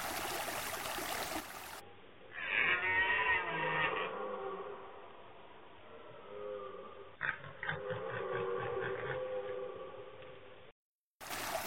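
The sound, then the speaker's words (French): A red deer stag bellows during the rut in the Aubrac: deep, hoarse, rasping roars in two long bouts with grunting in between, loud, with no voices. “Il brame d'un son rauque, presque lugubre.”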